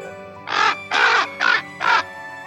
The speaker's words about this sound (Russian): Закаркал над их головой, обернулся вороном и улетел наверх.